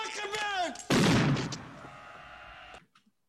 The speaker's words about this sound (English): He shot Jimmy Fingers.